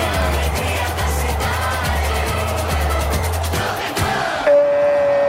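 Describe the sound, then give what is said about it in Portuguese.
A loud stadium crowd of Moroccan fans roars and cheers a Moroccan goal at the 2022 World Cup in Qatar, three minutes before the end of the first half, with a steady rhythmic pounding underneath, then the din drops away and a sustained high tone, like a horn or whistle, rings out at the end. “explosão de alegria no Alto Mama em do Catar.”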